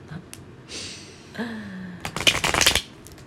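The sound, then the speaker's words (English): A deck of cards is riffle-shuffled, a quick burst of rapid fluttering clicks lasting about half a second, preceded by some soft handling rustle. “Or I shuffle, it, you pull.”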